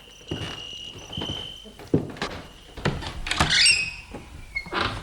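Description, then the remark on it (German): A door opens with a series of clunks and scraping noises, followed by a few shuffling footsteps, while a steady high cricket chirp runs underneath throughout. “Gehen wir rein, die Tür ist offen.”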